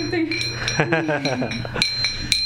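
Medals clink together in several sharp metallic taps, each leaving a bright, high ringing tone that lingers. A voice briefly speaks underneath partway through.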